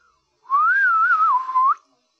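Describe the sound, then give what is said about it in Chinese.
A single cheerful whistled phrase lasting over a second, its pitch wavering up and down in a bouncy, lilting line before ending with a quick upward flick. It is loud and clear, with no talking. “对呀，小胖墩快乐地吹起了口哨。”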